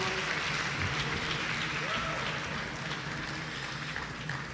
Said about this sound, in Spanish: Amén. Estamos de pie, le damos un aplauso al Señor.